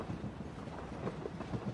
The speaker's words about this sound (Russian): О, поезд. Прикольно.